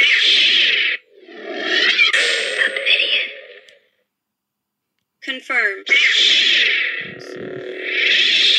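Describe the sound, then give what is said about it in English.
A toy lightsaber, playing one of several sound fonts chosen by holding down its button, ignites with a loud, distorted electronic buzz and settles into a humming drone. It cuts to silence, then a brief spoken word, and the buzzing hum returns, loud. “So this is, I believe, the episode one sound font.”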